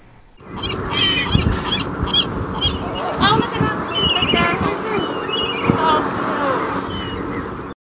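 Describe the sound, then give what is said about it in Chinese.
Seagulls squabble at a bay where they have followed schools of small silverfish. A dense, continuous chorus of harsh squawks and yelping cries, many calls overlapping at a fairly loud, steady level for several seconds. “他们是觉得钓鱼的大叔很可爱，还是海鸥吵架很可爱呢？”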